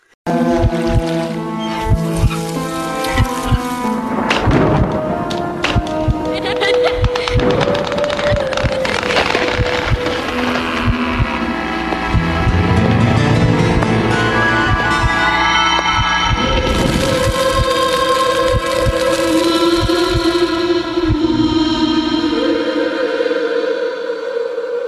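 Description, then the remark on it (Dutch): An eerie TV intro theme of sustained, wavering tones and layered harmonies, broken by sharp scratchy bursts like a match being struck, playing steadily loud for about twenty-five seconds with no talking. “En dat is geen liedje, maar dat is een soort van spooky introotje waar dan een lucifer wordt afgestoken.”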